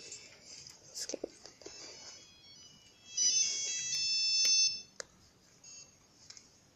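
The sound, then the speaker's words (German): A phone ringtone plays a bright electronic melody for about a second and a half, standing out clearly over faint background rustling and a few soft clicks. “Nur ein Klingelton”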